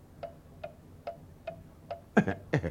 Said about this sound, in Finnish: Herätyskello? Minkä, minkä kellon? No tuo, joka raksuttaa. Kuuntelehan.